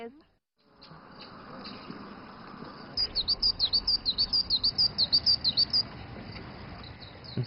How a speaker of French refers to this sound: Et entendre le chant mélodieux des oiseaux de Yidou l'a plongé quelque peu dans la nostalgie.